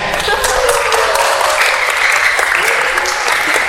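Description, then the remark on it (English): An audience breaks into steady, dense, loud applause for a group of people, with scattered cheers and voices mixed in throughout the few seconds of clapping. “Give these guys a hand.”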